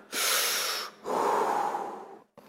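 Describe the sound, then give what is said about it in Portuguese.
A loud, exaggerated breath drawn in sharply, then pushed out in a long, breathy exhale, followed by a tiny catch at the end, as a speaker acts out deliberately worrying about breathing. “Você fica assim, eu preciso respirar agora.”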